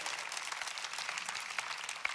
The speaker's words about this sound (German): Lasst mal für das einen Applaus geben. Come on.